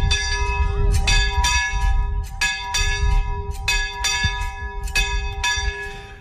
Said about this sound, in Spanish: el premio para los que han realizado esta romería ha sido poder tocar la campana. Hemos salido a las 9 menos 10 de la Plaza Mayor y hemos llegado a las 12 aquí en la Ermita de la Magdalena y solo nos queda tocar la campana.